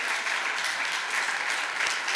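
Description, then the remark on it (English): A crowd claps for a couple's 28th wedding anniversary: a steady, dense, even wash of many hands applauding with no break, fairly loud throughout and no voices heard over it. “You can clap.”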